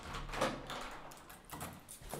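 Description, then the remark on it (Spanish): The living-room door of a house is opened with a few soft clicks and rattles, followed by a faint creak and quiet shuffling, fairly low in volume, with no one speaking. “No estaba el auto estacionado, y todas las puertas se encontraban cerradas, así que abrí la puerta de la sala.”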